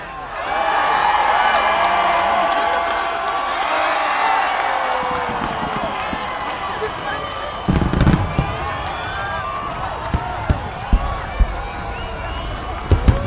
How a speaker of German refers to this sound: Aber jetzt ein grandioser Ohrenblick. Wir erleben gerade die letzten Sekunden des Jahres 2002 in Sydney. Der Auftakt zu einem gigantischen Feuerwerk.